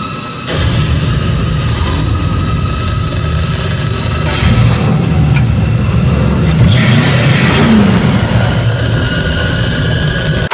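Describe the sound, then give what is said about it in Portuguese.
The Batmobile's powerful engine roars loudly and continuously in a film action scene, its deep rumble surging in revving bursts with booming, crashing hits layered on top. “Nossa, a cena do Batmóvel é sensacional, cara. Olha, eu não sei qual foi sua reação. Mas quando aquele motor começou a urrar,”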